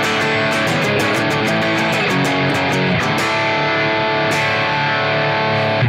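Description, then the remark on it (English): A heavily overdriven electric guitar played through an overdrive pedal with its boost turned up, giving a boosted, honky midrange, plays a chugging riff of rapid, evenly spaced picked notes that ring out into a sustained chord, loud and dense with no talking. “So the boost gets much more honky and mid-rangey.”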